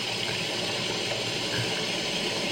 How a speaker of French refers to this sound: Voilà. Ah, des cascades.